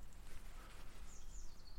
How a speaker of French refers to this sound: Tu les entends tous chanter Est-ce que c'est agréable ça Est-ce que ça fait du bien d'entendre les chants d'oiseaux